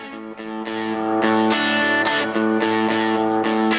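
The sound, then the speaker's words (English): A short burst of loud, dense instrumental radio bumper music with a gritty, distorted tone and rhythmic chord hits, playing steadily for a few seconds with no voices. “just keep listening for a second as you listen to our bump out here.”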